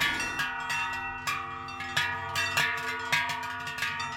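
Many cowbells worn by a cattle herd clang and jangle in an uneven, overlapping rhythm as the herd descends from Alpine summer pastures, with sharp metallic strikes every half second or so and sustained ringing tones between them.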